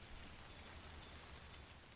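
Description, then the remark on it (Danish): Steady rain falls outdoors, a dense, continuous hiss of drops pattering on surfaces with a low rumbling undertone, constant in level throughout with no voices. “Det regner sgu også i dag.”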